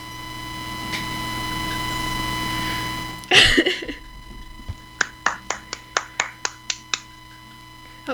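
clapping

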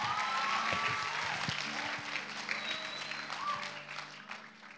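audience applause

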